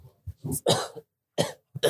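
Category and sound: human body sound, a small cough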